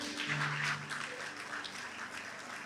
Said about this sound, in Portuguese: Você pode aplaudir, Senhor?